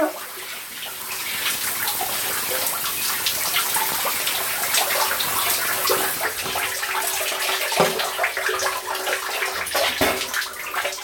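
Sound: shower water running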